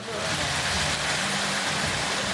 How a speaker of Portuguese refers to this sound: Mas onde a chuva chega mais intensa, com rajadas de vento, ficam os rastros de destruição